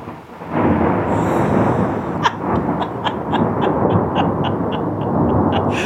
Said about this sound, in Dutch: Oh my god. Dit is echt beter dan het geluidsfragment. Ooit. My god, onweer. In midwinter. Wie had dat nou ooit gedacht?